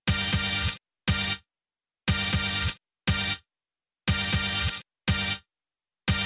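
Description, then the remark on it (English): Bright, loud synthesizer stabs repeat in a steady pattern, a longer chord followed by a short clipped one, with abrupt cutoffs and silent gaps between. No voices. “Some other stabs that sound like this.”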